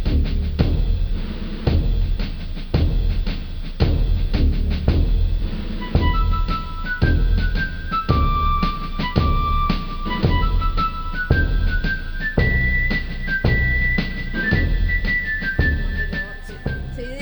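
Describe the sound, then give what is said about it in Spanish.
Old-fashioned instrumental music from the American Civil War era plays loudly and continuously: steady, crisp drum beats throughout, with a high, whistle-like fife melody entering partway and stepping between sustained notes. “Estamos escuchando un poco de, instrumental de esa época”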